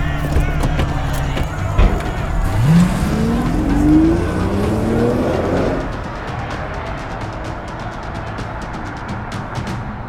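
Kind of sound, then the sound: vehicle, car driving away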